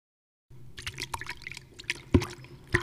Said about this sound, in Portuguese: Sim, esse é um cachorro bebendo água.